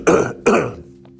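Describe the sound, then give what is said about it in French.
Two sharp, raspy coughs in quick succession, fairly loud, followed by a brief stretch of quiet low hum. “encore une fois, hein, je suis désolé de tousser dans les oreilles.”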